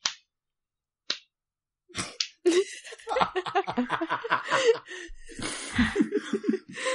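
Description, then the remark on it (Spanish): A slow, deliberate, ironic hand clap rings out twice about a second apart, each a sharp single smack in silence, before laughter and chatter take over. “Vale, eh, pongo los ojos en blanco y te aplaudo así.”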